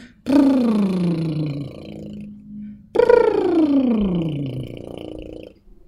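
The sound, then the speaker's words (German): Two buzzy lip trills done as a vocal warm-up exercise, lips together with air let through, each a fluttering, motorboat-like hum that slides smoothly from a higher pitch down to a low one, performed alone with a short pause between them. “Oder eine ganz beliebte Übung ist Lippenflattern.”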